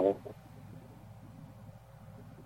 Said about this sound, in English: Part of what? You're, you're cutting out again.